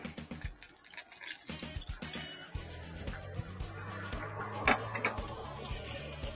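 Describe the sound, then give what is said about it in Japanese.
Steady, crackling sizzle of beef frying in a pan, moderately loud, with dense popping and spattering throughout and a few sharper pops standing out. “多分今、そのマイク越しに多分、牛肉の焼いてる音がジュージューと聞こえてるんじゃないかと。”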